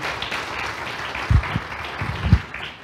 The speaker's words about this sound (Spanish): Amén. Un aplauso hermoso.